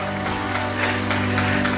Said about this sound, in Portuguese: Pode aplaudir ao Senhor.